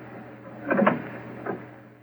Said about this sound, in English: Easy with the door. Careful.